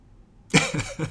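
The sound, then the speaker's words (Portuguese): A voice fakes a cough: a sharp burst after a brief silence, followed by two quicker, softer hacks in an uneven rhythm. “A turma vai lá tossir na cara do outro mesmo.”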